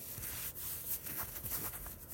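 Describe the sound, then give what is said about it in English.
Bed covers rustle softly and continuously for a couple of seconds, a quiet rubbing of fabric with small shifting swells and no voices. “covers rustling, water dripping from the bathroom.”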